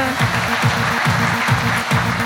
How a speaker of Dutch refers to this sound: Geef ze een hartelijke applaus.